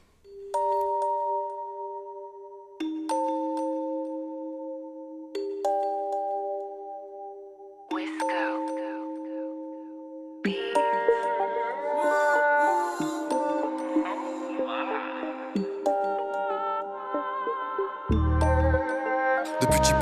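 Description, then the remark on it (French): A rap track submitted to a contest, heard in its intro with no vocals: slow, bell-like synth notes step through a simple melody before a fuller beat with drums enters midway, and deep bass hits thump near the end. “on écoute … avec le titre qu'il a proposé pour le concours”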